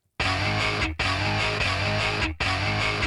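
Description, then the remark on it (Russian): A loud, distorted electric guitar riff, sampled from a track for a hip-hop beat, plays in repeating chunks, cutting off abruptly twice as the same sampled phrase loops three times without any voices. “Слышите вот эту гитару?”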